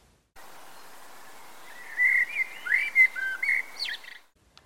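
In the grey of dawn, a lone first bird sings a short, hesitant song of clear whistled phrases and chirps over a steady soft background hiss with no voices.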